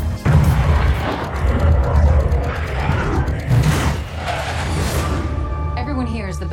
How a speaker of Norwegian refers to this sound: Lyden av F-14 Tomcat jagerfly, slik Hollywood flyr dem, for nå er Tom Cruise ute og flyr igjen.